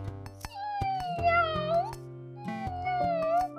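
A kitten meows twice, each cry long and drawn out, sliding down and then back up in pitch, over a steady rhythmic backing of percussive music. No one speaks.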